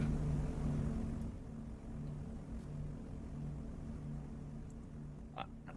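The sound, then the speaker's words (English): A steady low engine drone hums throughout, a rumble with faint tonal bands from an airplane flying overhead, quiet and unchanging, with no talking. “Well, I hear I hear a no, I hear a plane.”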